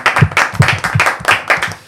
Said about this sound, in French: Euh, merci beaucoup en tout cas, Arles Karaté Olympique. On peut les applaudir.